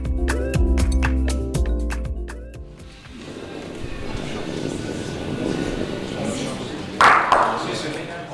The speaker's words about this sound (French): Cette boule que vous entendez rouler, c'est une boule nantaise, 2 kilos, noire ou blanche, lancée magistralement ce jour-là par